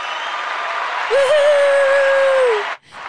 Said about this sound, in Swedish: Woo! Applåder!